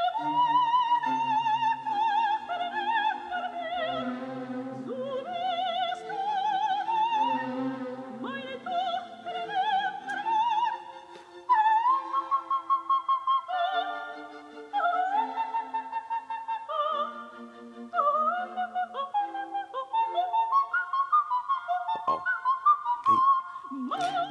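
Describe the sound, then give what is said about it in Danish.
A soprano sings a fierce operatic aria from The Magic Flute, running through rapid coloratura passages and leaping to high, clipped staccato notes over a fuller accompaniment, loud throughout. “det er nattens ej for ja, tryllefløjten, som hvad han synger, øh, hvad synger på det Ved du det?”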